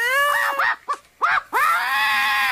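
A parrot named Louro José lets out a few short, warbling, voice-like calls, then holds one loud, harsh, high-pitched squawk for about a second. No people speak.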